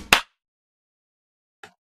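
One sharp, loud hand clap with a quick fade, then silence until a brief, faint voice-like murmur near the end.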